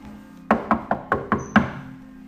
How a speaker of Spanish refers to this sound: Este señor toca la puerta de la casa del hijo